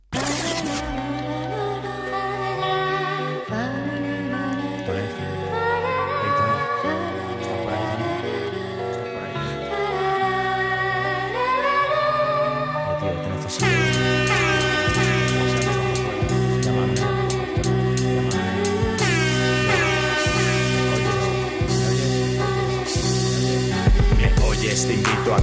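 A hip hop track plays loudly, opening with sustained bass and melodic layers before a steady, punchy drum beat kicks in halfway through; no vocals are heard.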